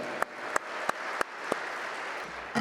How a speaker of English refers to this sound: Let's give them a big round of applause, please.